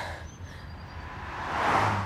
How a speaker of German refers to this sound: Es fahren ein paar Autos vorbei, aber in allen hocken Männer.